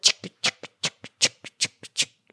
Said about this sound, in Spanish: yo no sé si ustedes se han visto que van caminando y hay personas que suenan. Y es que andan bolsas de plástico por debajo de la ropa.